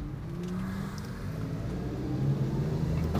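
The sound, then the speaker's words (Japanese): A scooter-like small motor vehicle ridden by an elderly man speeds along with a steady engine drone that swells louder toward the end, heard over continuous road noise. “おじいちゃんが今あのスクーターみたいなやつで爆走しておりましたね”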